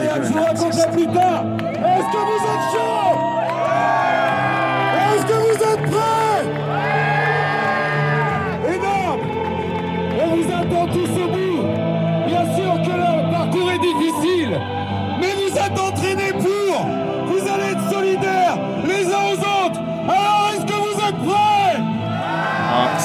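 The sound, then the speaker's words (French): A large crowd cheers and yells continuously before a race start, after a man with a microphone has worked up the crowd, with many overlapping voices whooping and bellowing at full volume. The noise is loud and never lets up. Recorded on a phone. “59 secondes, il a chauffé la foule, puis écoute, tu tenais le téléphone pour enregistrer.”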